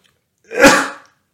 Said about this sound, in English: I'm about to sneeze. Excuse me.